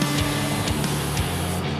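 Whipped cream hisses out of an aerosol can onto a drink of Bailey's, water and caramel in a glass, in a steady, loud spray lasting about two seconds, with a few brief sputters and a low buzzing tone beneath. No one speaks.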